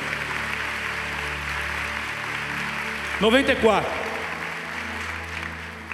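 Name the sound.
audience applauding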